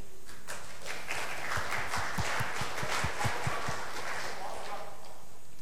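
An audience at a talk bursts into applause for a FreedomBox contributor, a dense, steady wash of many hands clapping at moderate volume that holds for several seconds without fading.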